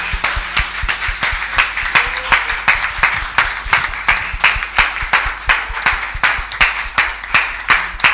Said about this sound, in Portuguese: Vamos dar a Jesus então uma salva de palmas por isso.